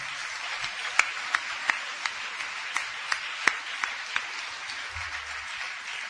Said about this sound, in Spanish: Quiero, antes de hacer una última canción, pedir un aplauso fuerte